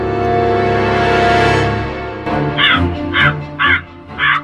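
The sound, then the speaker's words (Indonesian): A crow caws four times in quick, harsh, loud bursts, following a sustained droning tone that fills the first half; no one speaks. “Namun, Inu Kertapati diketahui oleh nenek sihir dan nenek sihir berubah menjadi burung gagak yang bisa berbicara.”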